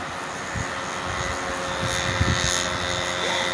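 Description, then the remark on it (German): A motorcycle's engine drones steadily, swelling slightly partway through as it passes, a continuous rough hum with no voices over it. “Ein Motorrad, hello.”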